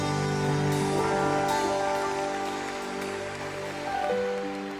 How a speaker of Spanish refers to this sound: Amén. Sí, dale un fuerte aplauso a Él, Él se lo merece.